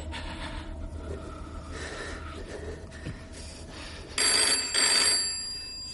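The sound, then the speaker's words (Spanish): A telephone on a table rings loudly near the end, a bright, high-pitched electronic trill in two quick bursts lasting about a second and a half, after several seconds of steady low background hum with no voices. “El hombre se levanta, coge el teléfono que hay sobre la mesa y le propina un fuerte golpe al joven.”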